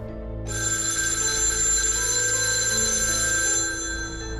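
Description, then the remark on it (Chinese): A telephone rings with an incoming call from the speaker's younger sister, in one bright, metallic, steady burst lasting about three seconds before cutting off, with a low hum underneath and no one speaking. “大约一个星期之后，有一天，我接到妹妹的电话。”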